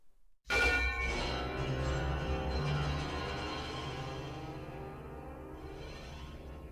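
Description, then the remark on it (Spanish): Metal pieces are thrown onto the strings of a piano in a single loud impact, leaving a dense, bell-like metallic ringing that sustains and slowly fades over several seconds. “Este sonido se creó a partir de que Nick aventó unas piezas de metal a las cuerdas de un piano”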